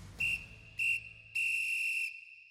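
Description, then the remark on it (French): A referee's final whistle at the end of a football match between East Germany and Belgium on 12 September 1990, blowing three times: two short sharp blasts followed by a longer sustained one, loud and shrill over a low background rumble. “Au coup de sifflet final, les joueurs allemands savent qu'ils viennent d'écrire l'épilogue de leur sélection.”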